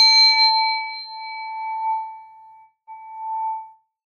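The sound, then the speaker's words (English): A metal singing bowl is struck twice with a butter knife, each hit giving a clear, loud, sustained ring with bright overtones. The first tone hums for nearly three seconds before a second strike rings out again. “Yeah, that shit does sound like a gong yeah.”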